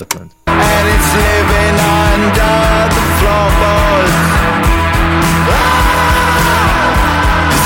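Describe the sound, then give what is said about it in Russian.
A singer shouts and yells forcefully over a loud, dense band track, the strained voice riding on top of steady driving music after a brief quiet start. “потом, он начинает орать. И мне очень нравится, как он орет.”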